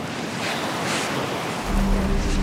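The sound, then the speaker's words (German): Steady ocean surf washing onto a beach in the evening, in a scene from a GZSZ spin-off, a broad continuous hiss with gentle swells, joined near the end by a low rumbling wind-like noise and a faint humming tone. “Am ersten Abend sehen die beiden am Strand eine Frau, die ihnen bekannt vorkommt.”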